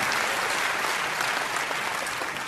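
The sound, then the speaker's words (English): An audience applauds during a sermon, giving thanks for Jesus healing a man born blind; a dense, steady wash of many hands clapping that stays loud and even throughout with no voices standing out. “How many of you say, Lord, Jesus, thank you for healing that guy?”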